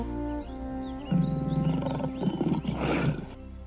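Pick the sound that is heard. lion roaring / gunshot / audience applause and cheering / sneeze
lion roaring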